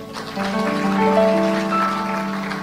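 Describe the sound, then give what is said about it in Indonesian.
Loud, steady applause, a dense crackle of clapping lasting a few seconds, with sustained musical tones holding underneath. “Tepuk tangan yang keras.”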